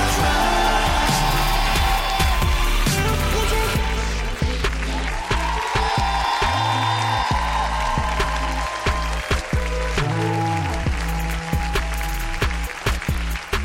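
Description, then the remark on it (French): A crowd applauds and cheers over loud, rhythmic music with a heavy bass beat. The clapping is dense and continuous, strongest in the first few seconds, then blends into the music. “Faites du bruit”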